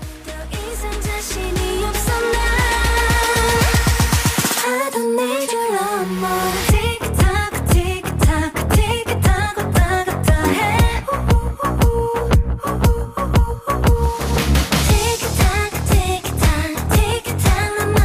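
A pop song plays loud for the whole stretch, with a driving steady beat, bright layered instruments and a melodic vocal line rising over the mix, briefly thinning out midway.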